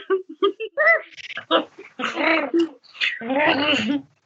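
A dog barks and yips in a quick series of short bursts, then lets out two longer, whiny, drawn-out vocalizations.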